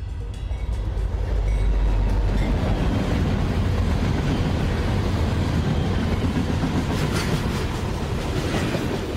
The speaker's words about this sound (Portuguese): Então, pegue seu café e suba nesse bonde que está chegando aí. E vamos de conversa.